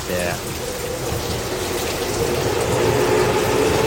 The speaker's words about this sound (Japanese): あまたちょっと電車がちょっと家の前がすぐ線路なんです